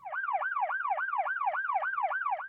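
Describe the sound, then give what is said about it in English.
A police siren wails in a rapid, repeating up-and-down yelp, loud, cycling steadily about four times a second with no voices over it. “The only thing what happens when thievery occurs, you got to call them cops.”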